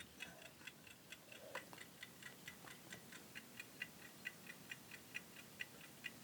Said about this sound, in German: äh, diese Uhr, die hat er mir repariert. Das ist eine altenglische Blätteruhr. Das ist was ganz Tolles. Oben werden die Stunden ähm, man muss es ganz aufziehen, sonst funktioniert es nicht. Dann fängt sie an zu ticken. Hörst du es?